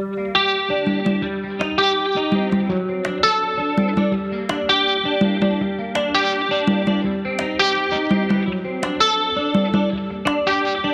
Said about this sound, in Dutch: Ja, een hele mooie cover, echt. Als je hoort hoe hij dit gedaan heeft, is fantastisch.